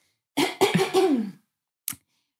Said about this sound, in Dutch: Ik ga even hoesten.